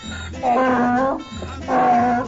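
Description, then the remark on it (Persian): A donkey brays loudly twice in quick succession, each harsh, drawn-out call rising and straining before breaking off, with a brief gasp between them. “و او از این بابت خوشحال بود و خوشحالی خود را با صدای تخمیش بلند فریاد میزد”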